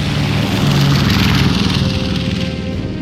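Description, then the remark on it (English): The four 750-horsepower Pratt & Whitney propeller engines of the bomber Lightning Strikes roar steadily throughout as it takes off from a runway at dawn, fully laden with bombs and extra fuel: a loud, dense drone with a low throbbing hum and faint pitch wavering. No voices are heard. “Lightning Strikes, fully laden with its bomb load and extra fuel, heaved off the runway and into the dawn sky.”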